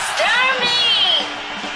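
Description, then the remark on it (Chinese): An audience at the Daming stand-up comedy show (大明脱口秀) claps and cheers steadily in welcome, with a dense wash of applause and several high, rising and falling whoops riding over it throughout. “现在是大明脱口秀时间，掌声欢迎我们亲爱的”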